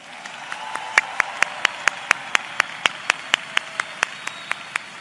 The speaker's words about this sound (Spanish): Muchas veces cuando estamos en, un seminario, los seminarios, el seminario mensual, y pasan algunas personas a reconocimiento, ¿verdad que muchas veces solo se hace así, de calidad? ¿Cómo sería un aplauso de excelencia?